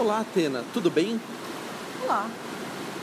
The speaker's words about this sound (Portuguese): esse barulhinho é o rastro do navio